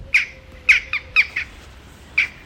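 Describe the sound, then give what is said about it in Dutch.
Several short, sharp jackdaw calls ring out in an irregular series, some doubled in quick succession, clear over faint background hum. No one speaks. “Het is een kraaiachtige. Hij lijkt erg op de gewone kraaien die je ook ziet, maar hij is een stukje kleiner.”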